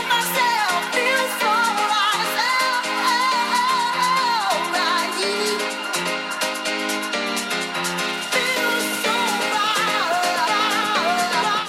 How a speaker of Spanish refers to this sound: Sonido House en estado puro.